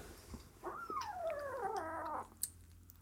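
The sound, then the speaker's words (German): Two six-week-old kittens hissing while sharing a food bowl: one drawn-out, whiny cry of about a second and a half that slides downward in pitch, fairly quiet, with a faint click just afterward. “So klingt das übrigens, wenn so sechs Wochen alte Katzen fauchen.”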